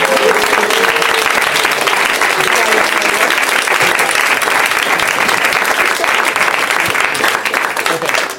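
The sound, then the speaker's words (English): A crowd claps steadily and loudly for several seconds, a dense wash of many hands with a few cheers mixed in, fading slightly at the very end. “I think we should give him a big round of applause.”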